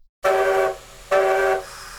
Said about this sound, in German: Ich habe gesehen, da hinten im Bahnsteig 3, da kommt schon unser Zug. Da sollten wir lieber einsteigen, bevor er uns wegfährt.